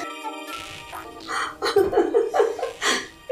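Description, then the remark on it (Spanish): A rufous-collared sparrow chirps in a quick, uneven series of short, bright notes that grow louder toward the end, with no talking over them. “Y me susurra en su idioma de pájaro.”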